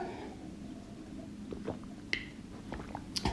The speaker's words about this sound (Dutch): Ik pak even een slokje water intussen.